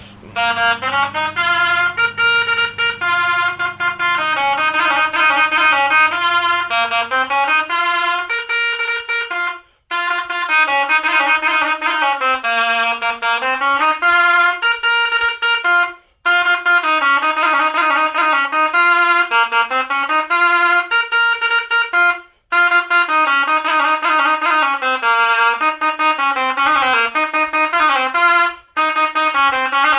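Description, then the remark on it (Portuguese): A goatskin bagpipe, made with the hair turned inward, plays a loud, continuous reedy melody over a low steady drone, with only a few brief breaks for breath between phrases and no voices. “A primeira é feita de pele de cabrito. Com o pelo virado para dentro, pronto, é uma gaita como toca pouco, isto só toca nos concertos, basicamente, que fazemos.”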